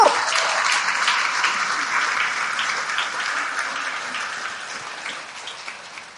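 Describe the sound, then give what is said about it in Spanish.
Sustained applause from a crowd, given to the Lord during a sermon, a dense wash of clapping that holds steady for several seconds and slowly tapers, with no voices rising above it. “El Señor lo vas a darle un fuerte aplauso al Señor.”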